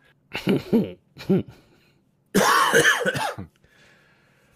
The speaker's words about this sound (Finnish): Alkaa yskyttää. Rupeaa yskittämään siihen malliin, että lyödään tämä homma kuule pakettiin.